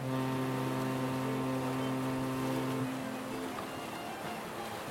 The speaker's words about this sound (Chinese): 海边、港口区海浪拍打的声音，以及船只的鸣笛声，